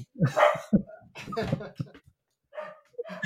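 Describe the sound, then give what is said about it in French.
A dog barks in several short, irregular bursts, fairly loud, during a live broadcast by someone working from home, with brief pauses between them and a voice mixed in. “Ah, pardon, il y a un chien qui a les avantages du télétravail.”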